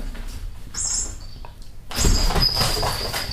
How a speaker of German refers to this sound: Mit so einer Maus, die piept. Das ist so eine Stoffmaus oder ja.